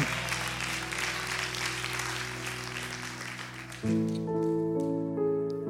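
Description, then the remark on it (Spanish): An audience claps loudly and steadily for several seconds, applauding the Lord during a church service, over sustained organ or keyboard chords, which shift to a brighter, fuller chord near the end as the applause continues. “Dele fuerte su aplauso al Señor.”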